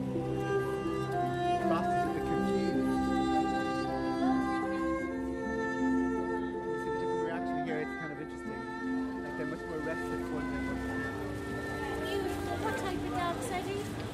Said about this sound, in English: Let's see where they go with the violin music here now. They like this.